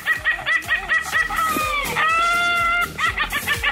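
An Ayam Ketawa rooster crows in a long stuttering call, rapid chuckle-like pulses giving way to a sustained tonal stretch, then more rhythmic cackling bursts, fairly loud with no talk.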